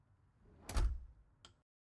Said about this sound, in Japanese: アパートの扉が開いた